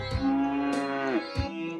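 A cow lets out a long, drawn-out moo, then starts a second one right after. The moos are loud, with no talking.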